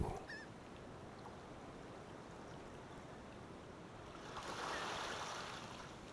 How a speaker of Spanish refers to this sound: La marea va subiendo, pero calma, que aquí estamos a salvo, el mar y tú.